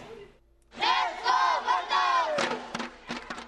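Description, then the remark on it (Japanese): A crowd of supporters from Shodoshima, Kagawa Prefecture, cheers for the Volters at a basketball game against a Kagawa team, chanting and cheering in loud, rising-and-falling waves of shouting voices, followed by a few sharp claps or thuds. “実はこの試合7月末にボルターズが合宿を行った香川県の小豆島の皆さんが応援に駆けつけていてその応援がチームを大きく後押ししたんです自分たちが住む香川県のチームとの対戦にもかかわらずボルターズに向けて大きな声援を送ってくれました”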